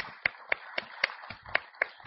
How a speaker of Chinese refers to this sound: เนี่ยลองตบมือสิตบมือ 我们试着鼓掌， ตบไปเรื่อยๆตบไปเรื่อย 不停的去鼓掌。